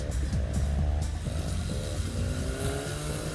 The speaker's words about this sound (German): Hey, was will denn der Mann mit dem knarrenden Auto